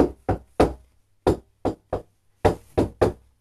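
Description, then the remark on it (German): Knocking on a pinboard: three quick sets of three sharp knocks separated by brief pauses, with no voices and nothing else in the background. “Ich habe gegen die Pinnwand geklopft.”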